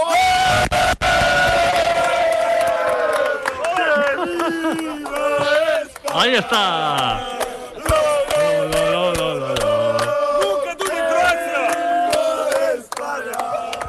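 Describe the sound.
A large crowd of football fans sings a loud, sustained chant in unison, the massed voices filling the whole stretch, with a brief spoken remark near the start.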